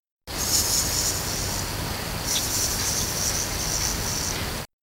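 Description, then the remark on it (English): A great horned baboon tarantula, a spider from Zimbabwe and Mozambique, stridulating by rubbing the hairs of its legs together, a soft, dry, continuous hiss with a faint gritty texture, steady for about four seconds, with no one speaking. “Some species of tarantula make a sort of soft hissing or rattling sound if it feels threatened,”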